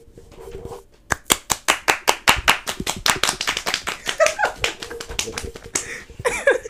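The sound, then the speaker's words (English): After a brief quiet moment, a soundboard applause sound effect plays: brisk, steady hand clapping, sharp claps repeating in a quick rhythm for several seconds, with a short voice-like sound near the end. “Let's let's get a round of applause for my recovery.”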